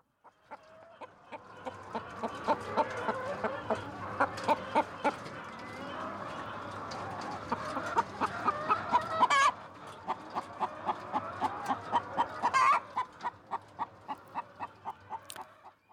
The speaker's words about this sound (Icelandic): allir þekkjuðu þetta hænuna sem við heyrðum í þarna